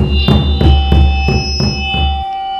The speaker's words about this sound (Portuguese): Após passar um tempão mirando o microfone na pele do surdo, ele começou a tocar, bem de leve. O sinal veio pequeno e eu dei um ganho, e a microfonia ensurdeceu a todos.